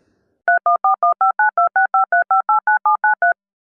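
A rapid run of about sixteen telephone keypad tones, dialing the digits of the number pi, each a short dual-pitched beep separated by brief gaps, dialed at a steady quick rhythm, clear with no voices.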